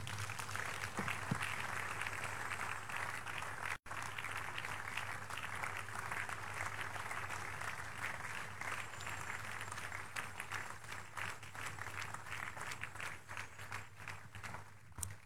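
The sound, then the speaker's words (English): A church audience breaks into sustained applause for Jesus during a service, a dense wash of many hands clapping at once that stays loud and steady for the whole stretch, with only a brief dropout near the start. “Give Jesus a big, big hand.”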